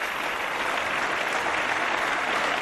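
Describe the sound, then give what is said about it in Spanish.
Sustained, dense applause from a large audience at the official premiere of the film Maishabel, part of an eight-minute ovation; a steady wash of many hands clapping at full strength with no gaps, no voices standing out. “Aplausos, gran ovación para Maishabel, anoche en el estreno oficial de la película.”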